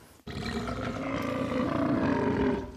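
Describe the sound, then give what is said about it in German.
A long, loud burp rumbles low and gravelly into the microphone, sustained for over two seconds with a rough, roaring texture before cutting off. No one speaks. “Oh, ich habe das Gefühl, ich muss gleich aufstoßen.”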